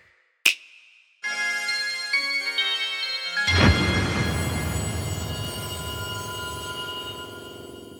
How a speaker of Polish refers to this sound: Ojejku, co się stało? Telefon mi się wyłączył.